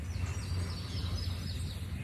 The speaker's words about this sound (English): Yellow-throated warbler.